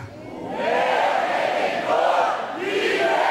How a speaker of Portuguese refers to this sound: eu quero ouvir um grande grito de vitórias da igreja.